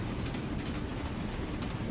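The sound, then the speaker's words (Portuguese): A train rumbles along the rails in a steady, continuous low roar, even in loudness, with faint rattling textures over the top and no voices. “Vamos, Gino, está perto do trem chegar. E foram eles para a estação.”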